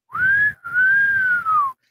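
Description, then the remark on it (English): A person whistles two long, sliding tones, the first rising briefly and the second arching gently then falling, mimicking an eerie night whistle heard in the woods, with no talking. “something like that and it's not a human being that's the kind of whistles i'm talking about”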